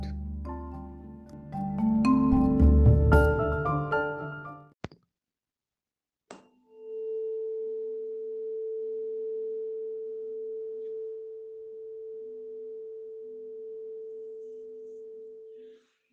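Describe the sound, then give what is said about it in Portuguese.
A tuning fork rings out a pure, steady mid-pitched tone, sustained evenly for about nine seconds after a sharp tap, following a short burst of fuller, louder sound at the start. “Ele é muito parecido com um garfo, ele é um instrumento muito engraçado. Muito utilizado por regentes de canto coral.”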